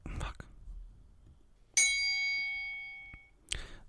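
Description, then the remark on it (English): A single bright bell is struck once, its metallic ring sustaining and slowly fading for over a second, with a couple of short, soft knocks or rustles before and after. “Oh, I gotta ding the bell.”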